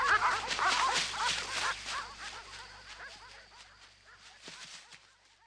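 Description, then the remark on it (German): A dachshund barks, yips and whimpers in a rapid, busy stream of high-pitched sounds, fairly loud at first, then gradually quieter toward the end. “Im Dackelsack fühlt der Dackel sich wohl, denn er wurde ja ursprünglich als Erdhund für die Baujagd gezüchtet also hat er keine Angst vor der Dunkelheit.”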